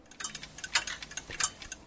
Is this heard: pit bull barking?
no